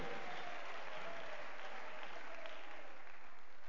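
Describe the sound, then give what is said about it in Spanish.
An audience applauds steadily for a few seconds as praise to the Lord during a church service, a dense, even wash of clapping from many hands with no voices standing out. “Un aplauso, alabanza para el Señor, amén.”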